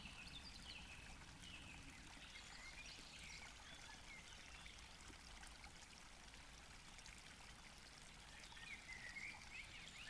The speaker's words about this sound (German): Und stell dir wirklich vor, du atmest diese wunderschöne, frische Waldluft ein. Lausche den Bach, lausche den Vögeln.